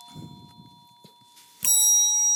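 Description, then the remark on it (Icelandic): A bright quiz buzzer bell ding rings out once near the end, loud, its metallic tone sustaining and ringing on after some faint low rumbling and a soft knock. “Já, við þurfum að heyra bjöllunar aftur bara.”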